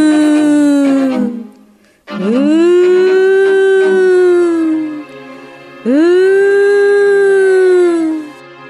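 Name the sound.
air raid warning siren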